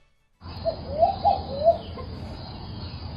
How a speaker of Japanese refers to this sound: どうですやっぱりもう熱帯って感じでしたね、周りのねそうですね鳥の密な感じが日本ではちょっとないないですね、はい、でもなんか山鳩みたいなね少しちょっとほほほほっていう感じですけど